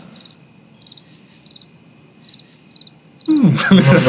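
Crickets chirp as a sound effect for a pause in conversation, in steady, evenly spaced pulses over a quiet low hum, about six bursts in a row, before a sudden loud rush of noise cuts in at the end.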